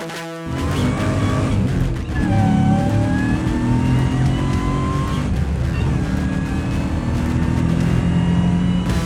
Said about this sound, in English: Those car sounds coming in from Devin. You know his car already. That is his supercharged 700 horsepower LS swapped Volvo 240.